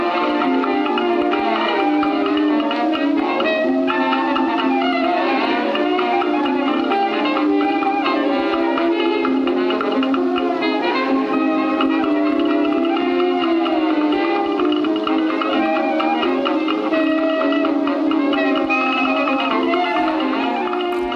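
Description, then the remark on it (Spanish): A lively early dixieland jazz band plays nonstop on a 1917 gramophone recording, the sound thin and boxy with no deep bass or crisp highs, busy horns layered throughout. “Claro, la grabación suena así porque es del año 1917”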